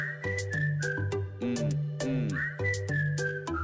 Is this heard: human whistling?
yes